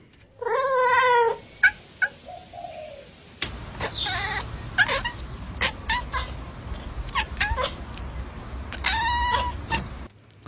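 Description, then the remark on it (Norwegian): A cat chatters at birds, making quick stuttering chirps and clicking chatters in short bursts, with a longer harmonic meow-like call at the start and end, over a steady outdoor background hiss. “Eh, dette, dette, er katter som eh, lager sånn klikkelyder.”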